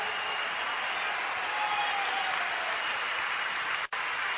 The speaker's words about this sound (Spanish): ¿Sabes dónde te forman? ¿Sabes dónde, familia? En esta maravillosa y tremendo proyecto al cual le pido un fuerte aplauso Amway de Venezuela.